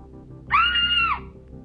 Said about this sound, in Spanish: La niña ahogó un grito.